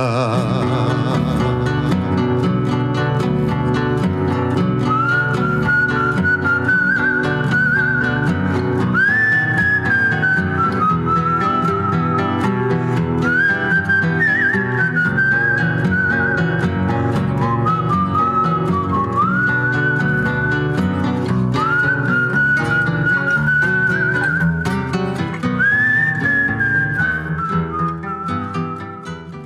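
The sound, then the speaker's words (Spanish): A person whistles a slow, sustained melody, each long note gliding into the next, carried over a steady full-band musical accompaniment that plays loudly and continuously throughout. “quedé con los perros chiflando para no pensar.”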